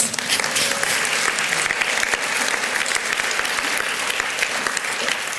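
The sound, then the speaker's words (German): Audience applause fills the whole stretch, a steady, dense wash of many hands clapping at an even loudness with no voices standing out. “Ein Applaus.”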